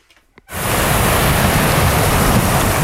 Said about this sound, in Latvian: Mierīgs jūras vējš un viļņu šalkoņi šķietami neliecina par katastrofu, ko Liepājas notekūdeņa attīrīšanas iekārtas piedzīvoja svētdien.